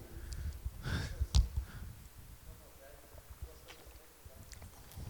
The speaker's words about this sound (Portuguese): Vou até abrir uma gelada aqui para mim aqui.